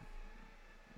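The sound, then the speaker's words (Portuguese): A heavy truck rumbles past outside, its low, steady engine drone filling the moment, with no voices over it. “tem um caminhão. Eu fico muito desconcentrado quando tem barulho.”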